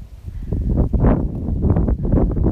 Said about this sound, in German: Und ihr hört wahrscheinlich den Wind.